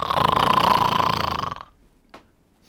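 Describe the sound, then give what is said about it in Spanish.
A person imitates the loud snore of a man sleeping with his mouth open during a film screening: one long, rattling, raspy snort lasting over a second, followed by a short pause and a faint little puff of breath. “Alberto Granado, así, durmiendo a boca de jarro”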